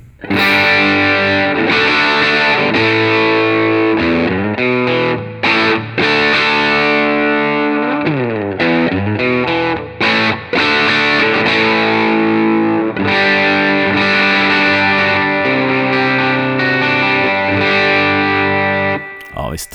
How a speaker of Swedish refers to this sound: Men vi testar med lite Drive. Stallmicken kommer här.